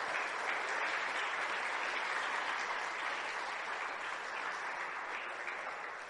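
Steady applause from a crowd during a sermon, given for God: a dense, continuous wash of clapping that holds at an even level for several seconds before tapering slightly at the end, with no voices over it.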